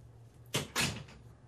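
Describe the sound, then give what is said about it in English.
A door swings shut, making two quick solid thuds in succession, like the door meeting the frame and the latch catching, over a faint low hum with no talking. “Close the door.”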